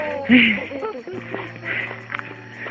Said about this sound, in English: Who's that making noise? Somebody's breathing in it.